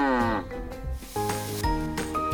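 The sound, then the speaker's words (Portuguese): A person imitates a cow's moo: a drawn-out, voiced lowing that slides downward in pitch, followed by steadier held tones, fairly loud. “Tem vaca, como que a vaca faz? Você sabe? Não? É assim?”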